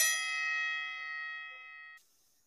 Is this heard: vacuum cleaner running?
no